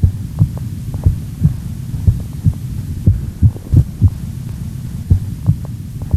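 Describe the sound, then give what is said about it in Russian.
Muffled heartbeat thumps of a heart with arrhythmia in a steady rhythm over a low hum, then a noticeably longer pause where a beat seems to drop out before the pulse resumes. “сердце будто пропускает удар, слышна небольшая пауза.”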